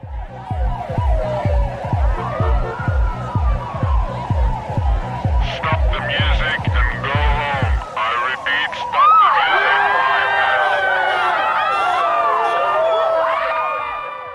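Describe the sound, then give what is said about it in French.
Police intervention sirens wail with rising and falling tones over a pounding rhythmic beat at the start of a music track, then continue alongside overlapping crowd noise and voices as the beat drops out, loud throughout. “C'est pour cette raison que le titre commence par des sons d'intervention de police.”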